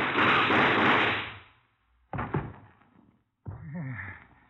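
A loud roaring burst of noise fades out, then a single sharp gunshot cracks and rings down, followed by a short wavering vocal cry.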